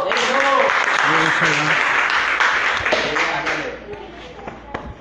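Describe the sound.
A crowd bursts into loud, sustained applause welcoming a man from a company, with voices calling out over the clapping, then the noise gradually thins and fades as a few scattered claps linger.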